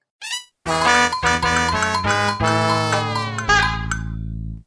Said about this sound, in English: the losing sound when you die in Sunshine is the most infuriating, humiliating, insulting